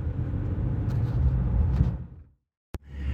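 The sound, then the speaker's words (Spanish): Steady low engine and road rumble inside a moving car in Alicante on a 25-degree day, fairly loud and constant, cutting off abruptly to near-silence before a sharp click and the hum returning. “Bueno, os decía que otro día que grabo en el coche.”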